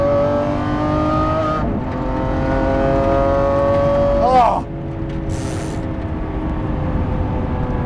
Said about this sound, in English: Oh, this car! I am driving a 2020 Lamborghini SVJ. This car, watch this.